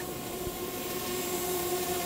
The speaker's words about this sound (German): Ist das. Ist das eine Drohne? Versprüht ihr etwa Chemtrails?